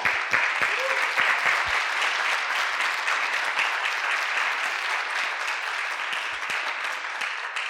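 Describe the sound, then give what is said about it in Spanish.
Sustained audience applause, a dense steady patter of many hands clapping at even loudness throughout, with a faint voice briefly surfacing near the start. “Ah, un saludo y un aplauso para todos ustedes que nos siguen.”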